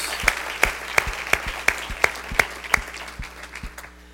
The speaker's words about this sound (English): Gracias, big applause to the Lord.